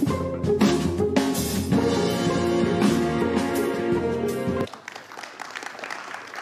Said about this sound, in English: Don't clap for her.